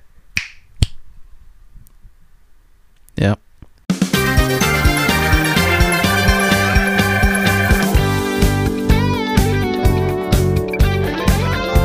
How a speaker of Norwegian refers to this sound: Så hvis vi bare teller til tre nå, og så knips, så vi prøver å ja. se om det funker å synke. Ja, så ta knips for slaget da. Ja. Én, to, tre.